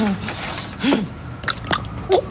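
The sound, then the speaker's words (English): Crunchy biting into a nut bar with lots of nuts, followed by chewing, with a few sharp crackling crunches spaced unevenly and some soft mouth noises and murmured vocal sounds mixed in. “Lots of nuts in that bar.”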